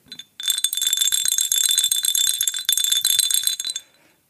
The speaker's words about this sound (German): Und hier vor meinem Computer steht ein anderer Talisman, nämlich eine weiße Tigerglocke, eine japanische. Und ich werde die jetzt mal läuten und die klingt überhaupt gar nicht wie eine Glocke.